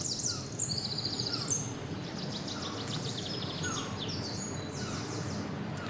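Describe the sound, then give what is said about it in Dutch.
A bird of one of the few species that came here from America via Asia and Europe gives a string of thin, mewing calls, some overlapping, against a steady rushing background noise. No one speaks. “Kun je nadoen? Ja, ze noemen dat miauwen.”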